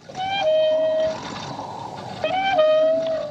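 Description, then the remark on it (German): A metal windmill squeaks as it turns beside a train station building in dead silence, the lonely sound that opens the film Once Upon a Time in the West: two drawn-out, high creaking squeals about two seconds apart over a faint, airy background, with no voices. “Es herrscht Totenstille, nur das Windrad dreht sich quietschend neben dem Bahnhofsgebäude.”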